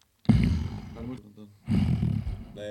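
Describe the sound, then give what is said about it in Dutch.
Two short, throaty growls made by a human voice, rough and roaring, with a brief pause between them, ending in a soft voiced sound. “Grommetje.”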